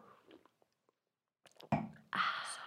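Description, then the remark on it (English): Someone sips a drink: a few small wet mouth clicks, a brief pause, then a louder slurping draw followed by a longer breathy, airy sound. No one talks. “And I know they're, they're, let me take a sip of this.”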